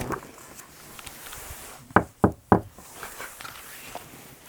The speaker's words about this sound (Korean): 호랑이는 엄마 옷을 입고 오누이 집으로 와서 문을 두드렸어.